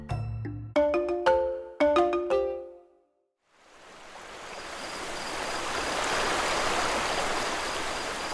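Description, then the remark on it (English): A short melodic chime phrase of bright, ringing tones plays first, then after a brief pause the steady rushing flow of the Nabaoy River, surrounded by forests and mountains, fades in and continues, full, with no voices. “Welcome to Nabaoy River.”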